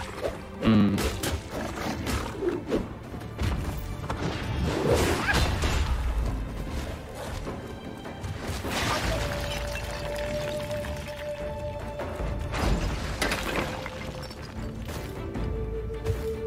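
Loud, repeated crashing and smashing impacts from a video game as a roof is broken apart, mixed with whooshing swipes and rumbling debris over a busy, continuous game soundtrack.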